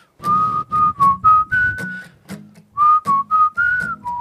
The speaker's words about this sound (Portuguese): Meu, o assobio. eu que fiz essa melodia do assobio